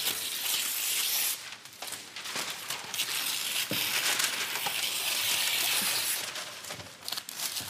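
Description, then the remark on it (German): Scissors cut around the edges of dough, producing a steady, crisp, crackly rustle with a few sharper snips and clicks scattered through it. Nobody speaks. “Ich nehme mal eine Schere, oder ich schneide das hier mal so ein bisschen außen ab.”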